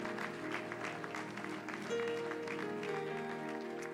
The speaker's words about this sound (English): And would you clap your hands one more time to Jesus for answering prayer?